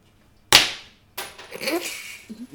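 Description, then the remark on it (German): A tossed coin falls to a hard floor with one sharp metallic clink and a short ringing decay, followed by rustling noise and faint voices. “Münzwurf muss so in die Höhe gehen.”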